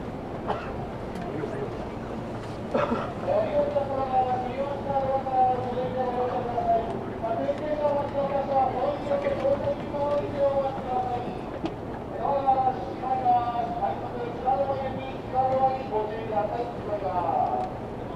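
Tokyo Metro subway train riding ambience from Iidabashi to Nishi-Funabashi, on a rapid train running through onto the JR Sobu Line bound for Tsudanuma: a steady, loud rumble of wheels on track with a whining motor tone that rises and falls in pitch, punctuated by occasional clacks and bumps.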